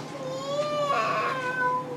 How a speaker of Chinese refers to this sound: 猫妈妈听见小猫的叫声，追了过去。